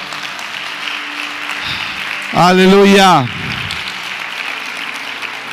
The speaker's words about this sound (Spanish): Dele ese aplauso al Señor.